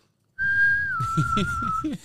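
A single long, steady whistle holds one high pitch for over a second, dipping slightly midway, while someone talks underneath it.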